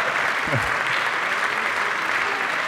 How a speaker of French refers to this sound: Donc euh, gros applaudissements pour Michael.